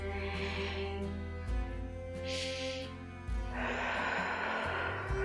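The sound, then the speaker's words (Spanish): A slow, deep breath drawn in and then let out, clearly audible over a soft, steady musical backdrop, with no talking. “Otra respiración.”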